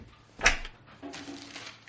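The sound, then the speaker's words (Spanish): A sharp wooden clunk, then a second of rough sliding rumble as a drawer is pulled open in a trailer, moderately loud with no voices. “revisa los cajones de la caravana.”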